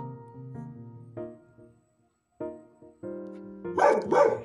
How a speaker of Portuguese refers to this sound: E é com esta introdução maravilhosa e talvez alguns ocasionais latidos de cachorro que eu começo mais um minicast de Martes.